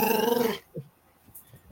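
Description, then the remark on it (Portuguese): A dog growls in a sustained, rumbling burst that cuts off abruptly, followed by a few faint, short huffs or soft barks in otherwise quiet surroundings. “Teu cachorro tá falando aí.”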